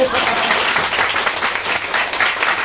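Steady applause from a group for a person who has just finished speaking fills the whole stretch, a dense, even patter of many hands clapping at once with no break or rhythm, loud throughout.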